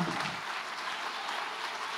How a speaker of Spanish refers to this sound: Si le vas a dar un aplauso al Señor, dáselo bien.